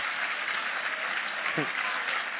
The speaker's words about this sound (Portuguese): Fica aplaudindo também.